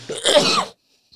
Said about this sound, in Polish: Chciałem tylko zaznaczyć, że kichający i kaszlący tutaj